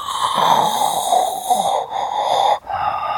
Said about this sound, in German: Könnten meine Eltern sein. Bei meinen Eltern habe ich den Darth Vader-Ton eingestellt.